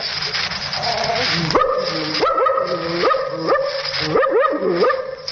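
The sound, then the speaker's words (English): A man's voice imitates a wary, suspicious dog, giving a run of five or six close, throaty woofs at a steady pace after a brief low, muttering growl. “a suspicious dog like this.”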